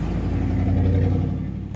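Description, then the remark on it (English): A large truck's engine rumbles loudly, a deep steady drone with a throaty mid-range growl that eases off slightly at the very end. No one speaks. “a big ass fucking truck.”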